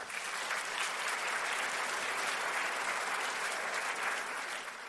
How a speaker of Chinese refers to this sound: 怎么会有那么多人来到高雄的会场呢？先给你们热情一个掌声，先好不好？